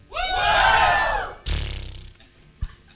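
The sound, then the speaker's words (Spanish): An audience of many voices lets out a loud, sustained shout together on a speaker's count of three, holding for over a second before a second, shorter burst of shouting follows and fades, ending with a brief thump. “¿Cuántos pueden gritar? A la cuenta de tres.”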